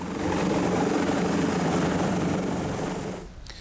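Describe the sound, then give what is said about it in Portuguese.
A helicopter departs for São Paulo, its rotor thudding in a loud, steady, throbbing drone with a whining engine, holding for about three seconds before cutting away abruptly. No one speaks. “Depois partiu de helicóptero para São Paulo, onde embarcou para Brasília.”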